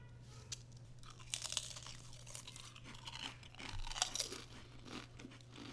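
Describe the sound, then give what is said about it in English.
Crisp crunching of potato chips, shaped like Pringles but a little smaller and tasting of instant ramen powder, being chewed: a steady run of sharp, bright crackles with a few louder bites, no talking over it. “Okay, I'm gonna do the because they're shaped like Pringles. They're a little smaller than Pringles.”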